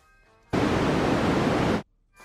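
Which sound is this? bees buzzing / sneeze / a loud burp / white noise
white noise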